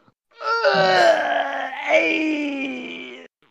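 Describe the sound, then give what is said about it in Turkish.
A voice imitates a man wailing in pain as his arm muscles suddenly tear: one sustained, strained cry lasting about three seconds, loud, with its pitch sagging and rising as it drags on. “Bağırıyor böyle.”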